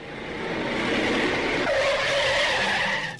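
A long, loud screech of the tires of a Mirante radio listener's car skidding under hard braking, a sustained high squeal that holds steady for about three seconds before cutting off.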